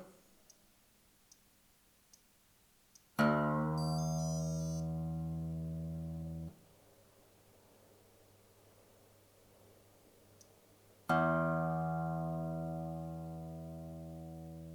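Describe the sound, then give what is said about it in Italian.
A slack guitar string is plucked twice, several seconds apart, while being tightened to tune it, each note ringing out clearly and slowly fading. A few faint ticks come just before the first pluck, and no one speaks. “Questo suono mi dice che la corda è lenta e va tirata. Ora la tiriamo, eh?”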